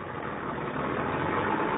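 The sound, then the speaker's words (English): Heavy trucks of a military convoy idle together in a steady, dense engine rumble, continuous with no pauses, a low mechanical drone without voices, as the convoy halts at dusk in a village where three or four roads meet and some trucks start to deploy. “Just about dark, we reached the village and the convoy halted.”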